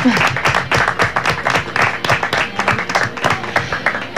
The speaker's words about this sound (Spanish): Cortito, breve, pero con contenido. Vamos a aplaudirlo.